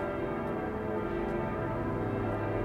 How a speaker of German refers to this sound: Wunderbar, dieser Glockenklang. Ja, Wahnsinn.